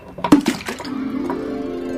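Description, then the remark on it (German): A few quick splashes and clinks as soap drops into a glass of water to dissolve, then a steady, faint ringing tone lingers, with no talking. “Ich will sie in dem Wasserglas auflösen.”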